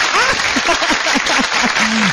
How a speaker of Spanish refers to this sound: ¡Aplauso, Jorge!